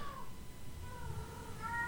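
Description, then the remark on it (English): A female cat lets out a muffled, drawn-out meow, a couple of wavering, stifled calls in a row, soft, as she walks around carrying her ball in her mouth. “She makes those noises when she um she gets her ball in her mouth and she's all proud of it and she walks around with the ball in her mouth and making those”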